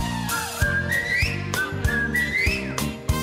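A melodic whistled tune with sliding, rising notes plays over a steady backing of rhythmic thumping beats, moderately loud, with no talking.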